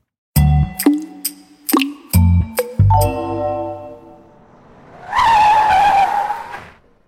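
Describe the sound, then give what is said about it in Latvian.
A loud, high tyre screech rises and holds for about a second and a half near the end, after a run of sharp, ringing clanks and thuds. No one speaks. “Jā, riepu švīkstoņa.”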